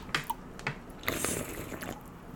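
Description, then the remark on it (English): Wet mouth sounds of someone sipping a fizzy citrus soda, with a few soft slurps and liquid clicks, then a brief swallow; no talking. “Try it out. First sip.”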